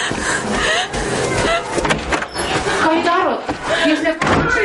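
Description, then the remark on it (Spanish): A woman in a corridor rattles and yanks at a locked door that won't give, with repeated clattering thumps and jolts of the handle, while a voice murmurs underneath. “Intenta abrir una puerta pero está cerrada.”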